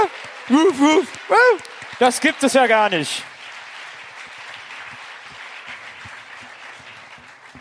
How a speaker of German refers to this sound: Jo, Kerstin. Ein Applaus.